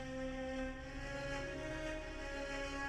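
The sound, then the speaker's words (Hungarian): A car engine, started and driven at full speed, runs with a steady, loud droning hum, holding an even pitch and volume throughout with no voices. “Beindította a motort, gázt adott és teljes sebességgel hajtott abba az irányba, ahonnan jött.”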